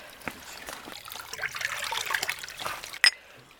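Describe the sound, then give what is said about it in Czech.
Water trickles steadily from a small forest spring, the Ohloběnka spring in January, with cups set out beside its clean water; a soft continuous splashing, with one brief sharper clink near the end. “k ohloběnce scházíme lesem a je to pěkná studánka, jsou tady i hrníčky, čistá voda a teče.”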